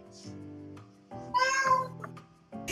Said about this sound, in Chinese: 有猫要补充。 金宝金宝补充了。 随着这只猫叫呢